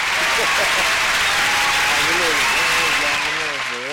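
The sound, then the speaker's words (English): A dense round of applause fills the whole stretch, steady and loud, with scattered voices and cheers rising through the clapping. “Let's get this nigga a round of applause.”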